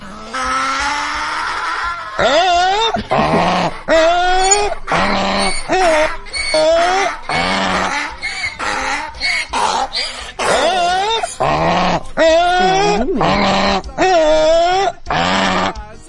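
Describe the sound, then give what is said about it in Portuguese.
A person vocally imitates a moose call in a recording sent in by a listener, with a series of loud, drawn-out braying bellows, rising and falling in pitch, repeated in quick succession over about fourteen seconds. “Porque já é a segunda pessoa que imita o Alce.”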